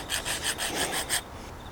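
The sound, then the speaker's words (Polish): A hand saw rasps through hard steel in six quick, rhythmic, fairly loud strokes, then stops abruptly into quiet. “No nie piłuje się ta kurwa jedna, co jest do chuja taka szwedzka sta...”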